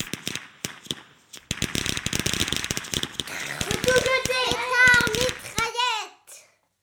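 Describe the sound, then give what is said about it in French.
A string of about ten small firecrackers linked by a single fuse pops in a rapid, irregular burst of sharp cracks, loud, followed by excited children's voices shrieking and calling out as the bangs trail off. “Un assemblage d'une dizaine de pétards de taille modeste, mais qui étaient reliés entre eux par une mèche unique.”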